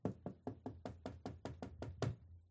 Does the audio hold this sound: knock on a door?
yes